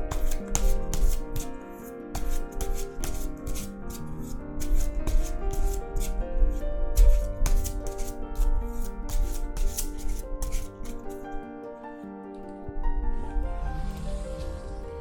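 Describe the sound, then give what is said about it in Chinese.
A Waite tarot deck being shuffled once, steadily, with repeated soft flicks, rustles and sliding rubs for about fifteen seconds, no talking, over a quiet, sustained musical tone in the background. “好，给我一点时间洗牌哈。”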